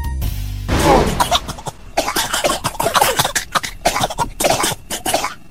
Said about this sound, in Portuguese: Ouviu esse barulhinho aí? É o som da tosse, algo muito comum para a gente que é ser humano, mas que também pode afetar os bichinhos de estimação.